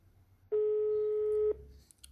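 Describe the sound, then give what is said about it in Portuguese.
A single steady electronic ringback tone sounds through a phone line for about one second after dialing the police emergency number 190, clear and fairly loud, then cuts off, leaving a low background murmur and a couple of faint clicks. “Discou 190. Colou o telefone ao ouvido. Aguardou.”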